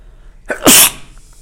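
A single sharp sneeze bursts out after a quick intake of breath, loud and brief, followed by a faint hiss of background noise.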